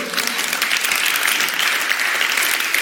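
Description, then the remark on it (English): A church audience claps together in sustained, dense applause, steady and fairly loud throughout, with many hands blending into a continuous wash of sound. “You want to clap for that? Come on, let's do it.”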